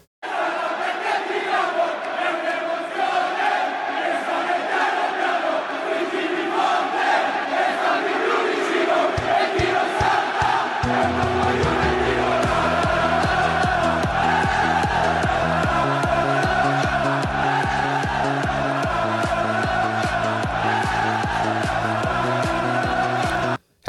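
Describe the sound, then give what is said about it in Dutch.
A large crowd of football supporters chants an anti-Juventus song in unison, loud and continuous, with a steady pounding drum joining partway through and driving the rhythm until the end. “een beetje een anti-Juventus lied is dat een beetje.”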